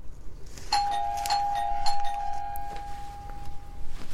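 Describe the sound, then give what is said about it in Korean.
A front-door doorbell rings with three quick, bright chimes in a row, then one clear mid-pitched tone hangs on and slowly fades. No one speaks. “스물세 번째 벨소리에 나는 더 이상 견디지 못하고 현관 쪽으로 느릿하게 걸어가 현관문 확대경을 들여다봤다.”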